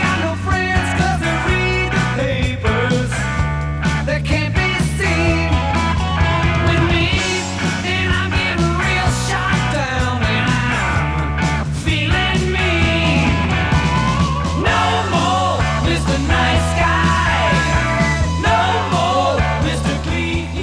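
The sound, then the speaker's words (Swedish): A loud, driving hard rock song from the 1970s, the original version, plays continuously, with a full band of distorted guitars, bass and drums under a sung lead vocal. “….”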